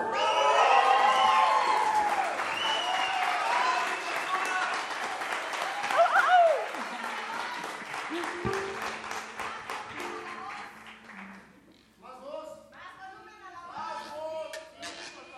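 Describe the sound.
A large audience in a hall bursts into loud, sustained applause mixed with cheers and whoops, the clapping thinning out after about ten seconds before a voice starts speaking.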